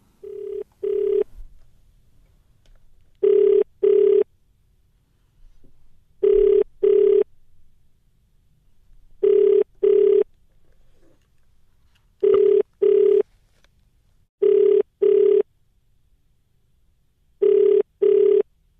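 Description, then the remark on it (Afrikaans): An outgoing call to Karen McIlway rings unanswered: a steady phone-line ringback tone in paired bursts, repeating seven times about every three seconds with quiet gaps between, clear and alone with no voices. “En soos jy daar gehoor het, was pogings om Karen McIlway in die hande te kry vir haar kommentaar onsuksesvol.”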